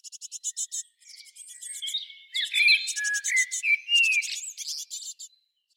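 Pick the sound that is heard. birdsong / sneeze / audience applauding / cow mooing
birdsong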